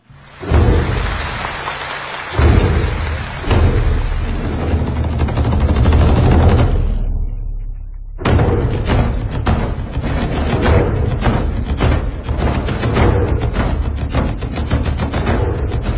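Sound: audience applause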